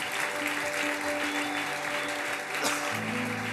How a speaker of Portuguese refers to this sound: Pode aplaudir Jesus.